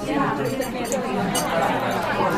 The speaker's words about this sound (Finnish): Näin kun kuuntelee tuossa, niin nämä nykyiset tämän päivän ruokaravintolat alkaa kuulostaa aika tyylisiltä.